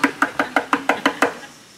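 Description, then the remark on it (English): A child knocks on a shut door: a quick run of about eight sharp knocks, evenly spaced in a fast, steady rhythm and fairly loud, then quiet. No one speaks. “And if he can't see her and her door's shut, he starts knocking.”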